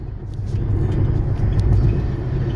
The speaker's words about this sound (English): As you can probably hear, I'm driving, which is usually when I record these things, I've noticed, which is good.